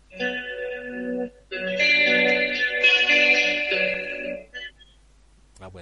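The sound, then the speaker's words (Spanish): Electric guitar played through an effects unit rings out in two sustained, shimmering phrases with a chorus-like wash, fairly loud, then a brief strum-like hit at the very end. “Creo que tienes una guitarra, ¿no, Pedro?”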